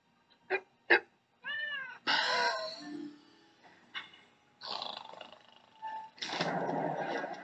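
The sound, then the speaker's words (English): A cat meows several times in a row in the introduction to Stoner Cats, the NFT cartoon series from Ashton Kutcher and Mila Kunis. The calls vary between short chirps and longer wavering, high-pitched cries, with a couple of brief clicks at the start and a hissy, noisy stretch near the end. “这个卡通的起源其实是以这些猫作为主角，然后这些猫在吸入药用的大麻烟之后，就产生了一些变化。”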